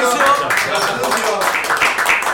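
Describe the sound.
Audience applause, a steady dense wash of many hands clapping at once, fairly loud throughout, with voices or cheers mixed into the noise.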